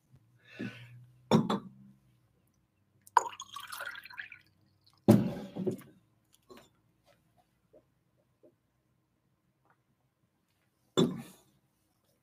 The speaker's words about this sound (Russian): Сейчас я воды попью.